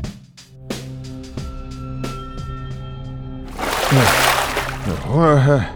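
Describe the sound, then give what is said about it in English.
A few ringing musical notes give way to a steady, hissing rush of water like a shower spraying down, loud, with a voice sounding briefly over it. “When the water hits me, it takes a second to remember I'm not in jail.”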